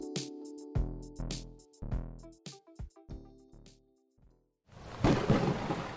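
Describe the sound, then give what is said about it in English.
Dramatic tonal musical hits pulse in bursts, then give way to a loud crash of rolling thunder with a hissing storm wash at the end. “Our magic put a storm in the sky that has rendered the surface of our planet uninhabitable.”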